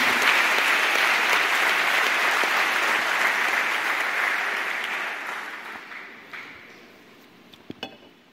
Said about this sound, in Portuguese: Você pode aplaudir mais uma vez?